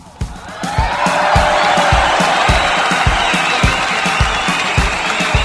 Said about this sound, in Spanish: esto público conocedor merece un fuerte aplauso.